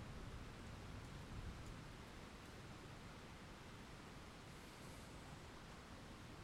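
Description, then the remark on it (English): A steady, even hiss of rain falling continuously, soft and constant with no distinct drops standing out and no voices. “Back then, when it rained like this, I would build sofa forts with the cushions in the living room.”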